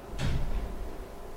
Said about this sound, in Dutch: Kijk, aan die deur trekken. Nou, die deur klemt een beetje.